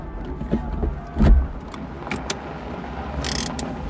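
A car engine rumbles low and steady as the car is parked at a wide square, with a soft thump partway through and a short hiss near the end. No one speaks.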